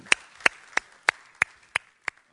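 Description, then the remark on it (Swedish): A single person claps seven times at a slow, even pace, each clap sharp, with brief quiet gaps between them and no talking. “Jag tycker det är härligt, det, det är värt en applåd.”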